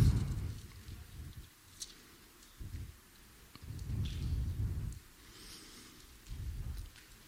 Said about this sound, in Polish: Dam wam chwilę, bo słyszę szelest kartek.